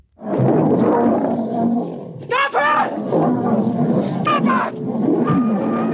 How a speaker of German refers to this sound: Wahnsinn, dass er einfach dazwischen rennt, wo sich gerade ein, so Löwen, die so 150 Kilo wiegen oder mehr, sich gerade prügeln, wie das halt Großkatzen machen, wenn sie um ihr Revier so ein bisschen kämpfen oder auch spielen.